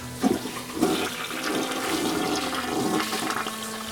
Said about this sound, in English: At least flush the toilet first.